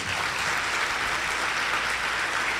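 An audience at a church service applauding the Lord steadily, a dense, even wash of many hands clapping at once with no pauses, sustained at a constant level throughout and no voices standing out.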